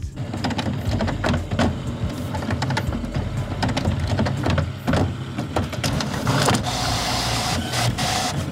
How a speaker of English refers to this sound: Oh, right. a photocopier. Yep, photocopier.